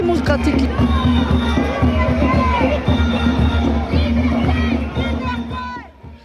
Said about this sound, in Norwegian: Frihet, skriker vaksinemotstandere i Paris.